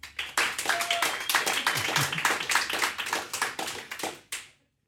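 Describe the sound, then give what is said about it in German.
An audience applauds the documentary filmmaker Hans-Peter Bäni from Habsburg, a guest welcomed by journalist and cabaret artist Pascal Nader, with dense, steady clapping for about four seconds. It is loud and even throughout, then stops abruptly, and no one speaks over it. “ich bitte um einen herzlichen Applaus für meinen heutigen Gast, den Dokumentarfilmer Hans-Peter Bäni aus Habsburg.”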